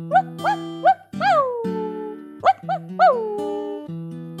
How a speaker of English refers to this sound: Next morning, the puppy jumped from one bed to another bed and woke the kids with his cute, mild barks.